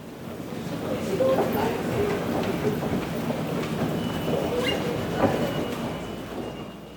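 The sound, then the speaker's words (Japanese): A field recording of a steady, continuous rumble of a subway train at Roppongi Station on the Oedo Line, an underground station, on a rainy day, with a dense wash of mechanical noise, faint metallic screeches and clatter, and murmuring voices in the background. “雨の大江戸線六本木駅”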